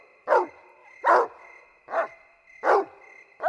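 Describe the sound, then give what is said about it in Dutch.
A dog on a leash barks loudly and pulls at the leash, about five sharp barks at a steady, regular pace, with a faint continuous tone humming in the background and no one speaking. “De hond begon luider en luider te blaffen en te trekken aan de leiband.”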